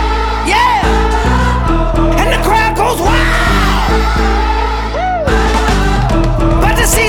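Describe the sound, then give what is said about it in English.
A loud crowd cheers continuously, with rising whoops and yells breaking through over steady, thumping music underneath. “And the crowd goes crazy.”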